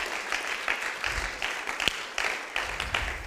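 An audience claps steadily, a dense crackle of many hands with a few louder individual claps and a bright accent near the middle, with no talking over it.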